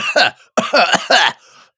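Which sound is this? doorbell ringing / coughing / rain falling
coughing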